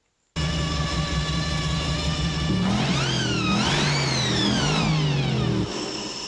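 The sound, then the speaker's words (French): A V8 car engine idles with a deep, steady rumble, then revs up hard in rising and falling sweeps before settling back. Loud, with no voices. “la fameuse voiture de Mad Max, qui est aussi le symbole de la, saga, qui est la, voiture euh, V8”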